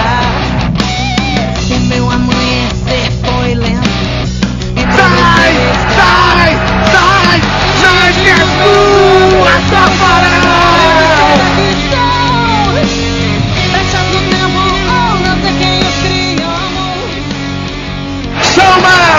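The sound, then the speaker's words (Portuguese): A large football stadium crowd shouts and yells continuously, a dense, loud roar of many voices with scattered whoops rising above it, swelling slightly midway and holding steady throughout. “E a torcida gritou leve.”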